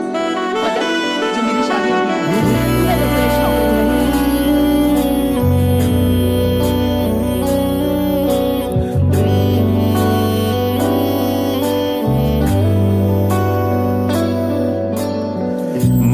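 A Hindi song plays loud and steady, its full melodic arrangement carried over deep sustained bass notes that shift every few seconds, with bright layered tones running throughout.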